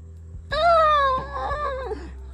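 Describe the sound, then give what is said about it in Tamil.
A person's voice imitates an elephant trumpeting with a single loud, high, wailing blast that slowly falls in pitch and trails off over about a second and a half. “அப்படி சத்தம் போடும்ல யானை”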